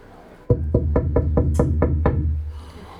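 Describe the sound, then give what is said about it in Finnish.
A quick, steady run of about eight knocks on a door by a Christmas elf, fairly loud, each with a hollow wooden thud, followed by a brief fading silence. “Tonttu koputtaa.”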